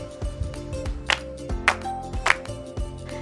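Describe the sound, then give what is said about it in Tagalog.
Three sharp hand claps land at a steady, even pace over a soft background of instrumental music, each clap a quick bright smack standing out above the tune. “Mahusay, mayroon itong tatlong palakpak.”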